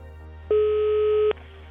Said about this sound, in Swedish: Han ringer, han mejlar, han skickar sms, meddelande på Messenger och han ringer till företagets växel.